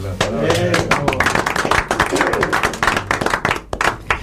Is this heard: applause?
yes